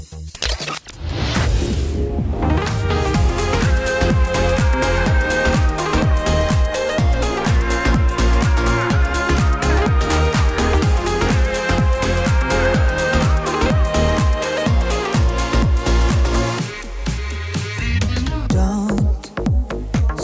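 A pop cover song plays loud and dense throughout, with a steady driving beat and layered sustained melodic parts; near the end the mix thins briefly and a low sliding bass sweep comes in.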